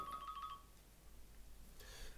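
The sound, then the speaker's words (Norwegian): A phone ringtone chirps briefly, a quick run of bright electronic tones that stops after half a second, followed by quiet background hum and a faint shuffle. “Pausen her, fikk du en telefon?”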